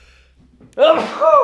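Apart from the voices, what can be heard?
sneeze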